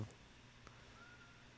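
animal, cat vocalizing

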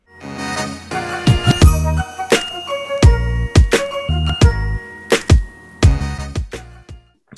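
signal or alarm, phone call ringing tone

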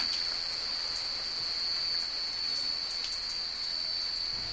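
nature, rain falling

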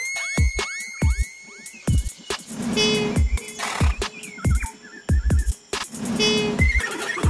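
animal, koala call

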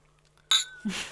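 household object, glasses clinking

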